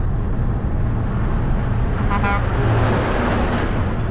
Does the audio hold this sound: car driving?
yes